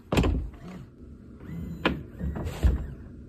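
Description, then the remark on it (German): An electric car's soft-close door latch draws the door shut by itself: a low thud, then a brief whirring motor pull and a couple of sharper mechanical clicks, fairly quiet, with no talking. “Also die Türen, wenn man sie nicht komplett ranzieht, ziehen sie sich selber zu.”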